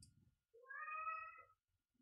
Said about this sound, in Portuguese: miau. Deu para ouvir? Claro. Deu.